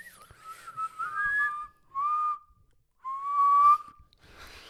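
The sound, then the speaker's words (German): A person whistles a few short, wavering tones in three bursts separated by brief pauses, clear, with no talking. “pfeif du mal. Kannst du pfeifen?”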